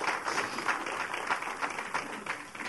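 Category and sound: crowd, hand clapping applause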